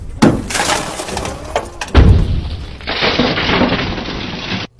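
Two loud, sharp blows from an emergency glass-breaking hammer strike a van window, the second harder, each followed by cracking, crunching glass, then a steady gritty rattle of breaking glass; no voices.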